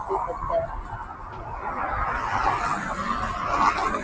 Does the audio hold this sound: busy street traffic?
yes